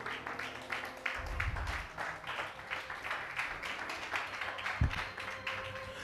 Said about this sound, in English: I didn't ask you to clap, but if you want to clap, I think.